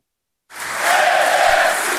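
After half a second of silence, dense applause starts abruptly and holds steady at a loud level as a former minister arrives with Francisco Assis and Luísa Salgueiro to announce his candidacy for PS secretary-general, a bright, crackling wash of many hands clapping together with a faint crowd murmur underneath.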